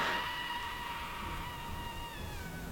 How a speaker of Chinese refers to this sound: 这天夜里正说着话啊，突然传来声嘶力竭的尖叫声。